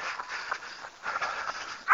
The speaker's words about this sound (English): As promised, we're just cresting the hill, the long hill. Darcy's barking, and uh, we're getting ready to wind this one up.